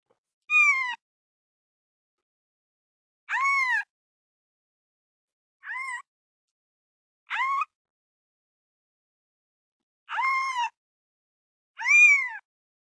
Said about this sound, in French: C'est le chaton. Qui crie comme ça